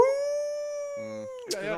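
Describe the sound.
A person imitates a beagle's howl with one long, steady, loud vocal note that holds for over a second, followed by a brief murmur and the start of speech.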